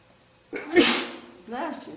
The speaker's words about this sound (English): Oh, Mum, that's why I'm sneezing, so I get blessings.